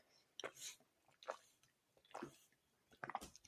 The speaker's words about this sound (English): And I will say this hold on, I'm just going to grab a quick sip of water.